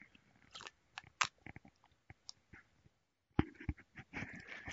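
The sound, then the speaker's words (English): Quiet mouth sounds of someone sipping and gulping hot coffee: soft slurps, wet clicks and a few swallows spread across the moment, with no talking. “I'm going to take a sip.”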